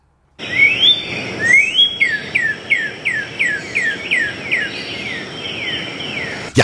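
A northern cardinal (Cardinalis cardinalis) sings a clear series of about ten rapid, downslurred whistled notes in a steady rhythm, loud, over a faint background hiss with no talking.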